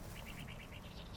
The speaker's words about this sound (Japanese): もう鳥の声だけすごいね